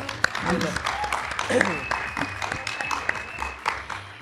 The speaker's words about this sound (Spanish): Y bueno. Un, aplauso, por favor. Un aplauso.